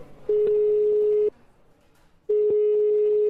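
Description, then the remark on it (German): Two steady telephone ringback tones, each about a second long, separated by a pause of quiet line noise, sounding clear with no one speaking. “Der Mann am Telefon möchte seinen Namen nicht nennen.”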